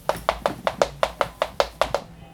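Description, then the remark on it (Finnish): Feet tapping on a studio floor as one person dances alone back and forth, in a quick, steady rhythm, about ten light, sharp taps with no talking, ending abruptly. “Se tarkoittaa sitä, kun minä omilla pienillä töppösilläni täällä studiossa teputtelen ja taputtelen edestakaisin.”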